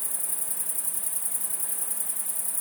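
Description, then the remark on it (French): A continuous, shrill high-pitched buzzing from a great green bush-cricket in the evening, loud and unbroken throughout, with a faint low wash of background noise beneath it; the great green bush-crickets almost drown out the Maravel torrent about a hundred metres away. “Et là, euh, ce qui est extraordinaire, c'est que les grandes sauterelles vertes couvrent presque la rivière, enfin le, torrent, le Maravel, qui est à une centaine de mètres d'ici.”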